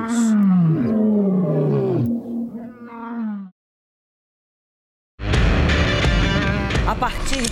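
A lion roars loud in a few deep, drawn-out groaning bursts, then falls silent for a moment before a dense, loud wash of other sound starts up.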